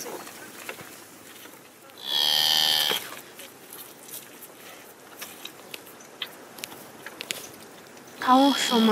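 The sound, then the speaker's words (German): A cow from a Mongolian nomad family's herd, being brought over, lets out a loud, drawn-out moo, followed by quieter rustling and scattered footsteps, then another bellow begins right at the end. “Bringst du die Kühe hierher? Du musst dich vorsichtig nähern.”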